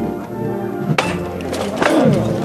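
A metal knocker strikes twice, about a second apart, as the call to lift a brotherhood's paso (procession float). Each blow is a sharp, ringing clank over a steady murmur of crowd and background voices.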